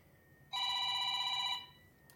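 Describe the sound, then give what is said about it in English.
A husband's mobile phone rings with a bright electronic tone during a recording before an audience, starting suddenly and holding steady for about a second before cutting off, fairly loud. “This is what makes these podcasts fun: is random phones ringing in the middle.”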